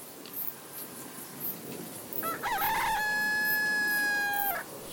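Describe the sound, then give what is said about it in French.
A single long rooster crow, a recording played at full volume through a poor-quality loudspeaker, harsh and tinny, rising then holding before cutting off, over a steady hiss of background noise with no talking. “C'était bel et bien un coq. Et c'était clairement un enregistrement diffusé à fond sur un haut-parleur de mauvaise qualité.”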